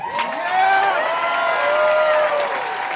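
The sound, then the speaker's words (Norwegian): A large rally crowd cheers and applauds loudly and steadily, with shouts and whoops rising over dense clapping throughout, as a Texas senator says it is good to be back in America after a month in Washington. “Folk jubler når Texas-senatoren sier det er godt å være tilbake i Amerika etter en måned i Washington.”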